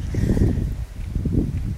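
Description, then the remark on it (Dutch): Steady low rumble of wind buffeting a microphone outdoors, fairly loud and continuous with gusty swells and a brief dip midway; no voices. “Ik hoop dat je niet te veel last hebt van de wind. Er is er wel wat vandaag”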